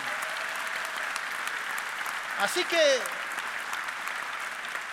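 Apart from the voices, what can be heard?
audience applause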